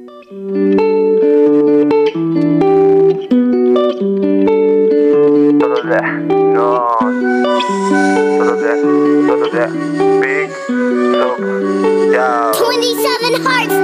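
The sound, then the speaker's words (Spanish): A song plays loud and continuous on Costa FM radio, with a steady chordal backing moving in even steps and a melodic, voice-like line with vibrato rising over it in the second half. “vamos a escuchar un poco de música”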